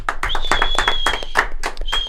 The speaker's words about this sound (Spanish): Un aplauso por favor